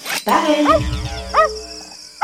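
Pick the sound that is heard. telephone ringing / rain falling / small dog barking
small dog barking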